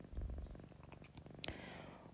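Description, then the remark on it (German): A cat named Kitty purrs softly and steadily, a low rhythmic rumble with repeating pulses, broken briefly by a couple of sharp clicks near the end. “Und das Schnurren im Hintergrund ist die Kitty.”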